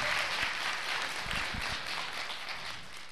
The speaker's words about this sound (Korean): 자, 우리 도와주신 분들 모든 분들 대박나시라고 감사의 박수 한번 부탁드리겠습니다. 감사합니다! 감사합니다.